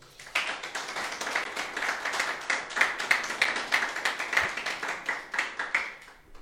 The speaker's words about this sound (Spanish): Dale fuertes palmas al Señor.